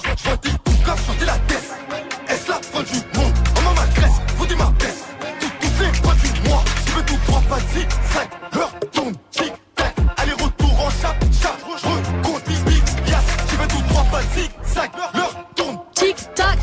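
A rap track plays loud and close, with heavy booming bass under a dense beat that cuts out briefly a few times before slamming back in.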